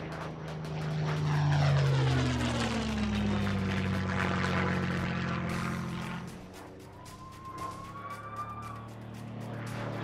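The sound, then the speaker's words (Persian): A propeller airplane engine drones loudly and steadily, its pitch sweeping as it passes by, then easing slightly toward the end. No voices accompany it. “یه مقدار خوراکی خریدم و دوباره سوار هواپیما شدم”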